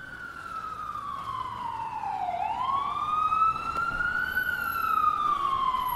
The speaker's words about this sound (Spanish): Ahora eh, hablábamos de unas cuantas lesiones y creo que ya se acerca una ambulancia.